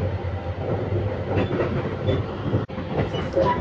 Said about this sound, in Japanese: ただなんかあの市電が走ってまして路面電車みたいなそれに乗った時に